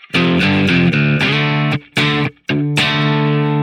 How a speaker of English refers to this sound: So that's what I'm doing. And then I'm moving back to the C chord and strumming that twice.